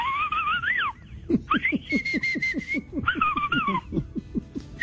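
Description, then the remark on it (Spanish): A person whistles a lively, bird-like tune with warbling, sliding notes and a sustained high tone, fairly loud, over a steady rhythmic pulsing beat underneath. “Fue silbar.”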